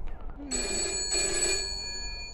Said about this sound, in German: Das ist äh, das rote, große Telefon, das hier das klingelt. Riesiges 5 Meter. Soll ich mal rangehen? Geh mal bitte ran, ja.